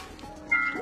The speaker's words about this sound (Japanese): その、っと誰かピアノ弾き出した時に、ね、猫がね、猫がうるさい。